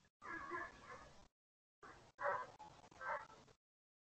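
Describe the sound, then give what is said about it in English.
A neighbor's dog barks in the background, a longer drawn-out bark followed by a quick run of three or four shorter ones, somewhat muffled, with no one talking. “Um, no, it's our neighbor's dog.”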